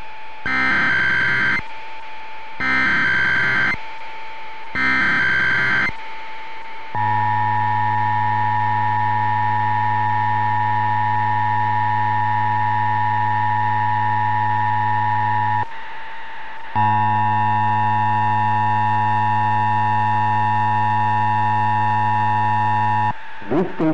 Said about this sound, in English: The following tones are part of the emergency alert system.